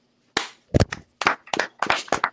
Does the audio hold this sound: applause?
yes